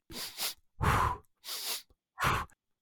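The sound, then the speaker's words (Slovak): Audible breathing with no speech, imitating a yawn: two short airy inhales through the nose followed by a fuller, breathier exhale through the mouth, four breaths in quick rhythmic succession. “a je to veľmi dobre aplikovateľné, pretože toto zívnutie je do, možné napodobniť aj dýchovou frekvenciou typu dva nádychy nosom a jeden výdych ústami.”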